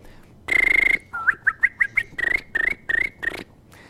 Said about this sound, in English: For example, I've developed all these funky techniques as the regular lip whistle, but I can also whistle with my tongue and then go.